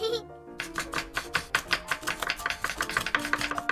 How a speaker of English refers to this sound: Yeah, you can chop the baby zanahorias, and I'll chop the papas or the potatoes, since all the papas are quite a bit bigger than you, buddy.